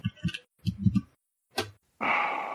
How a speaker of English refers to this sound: I love the sound of your keyboard.